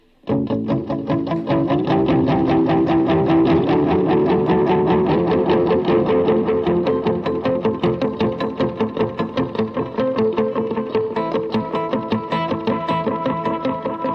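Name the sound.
electric guitar being played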